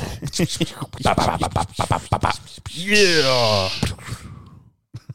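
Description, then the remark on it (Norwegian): A single voice beatboxes: a quick run of punchy kick-and-snare mouth hits, then a sliding vocal scratch that bends up and down, ending with a couple of soft clicks. “Men eh, kan ikke du beatboxe litt, eh,”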